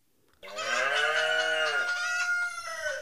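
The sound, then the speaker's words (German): A brightly spotted cow lows together with a hen and a rooster calling at once, one loud, sustained chorus of about two and a half seconds with no talking. “Ducks, antworteten die Tiere, und das musste wohl heißen, wir sind es zufrieden.”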